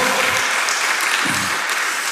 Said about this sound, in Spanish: Ah, dale un aplauso fuerte.